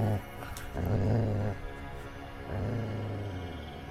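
A dog growls low and steadily in two sustained defensive bursts at something unseen, with a brief pause between them and no talking.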